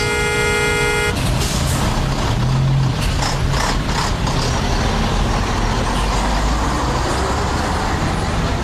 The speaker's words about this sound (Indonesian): Ya Allah, macet banget nih.